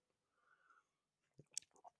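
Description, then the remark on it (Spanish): A quiet sip from a drink, another sip taken after a microphone is briefly removed: a soft slurping draw followed by a few wet mouth clicks and a swallow, with no talking. “Disculpa que me quito el micrófono de repente. Otro trago.”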